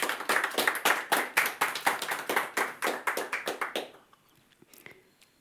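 Audience applause: a dense run of rapid, sharp hand claps from many people, steady and fairly loud for nearly four seconds, then quickly fading to a few scattered claps and near silence.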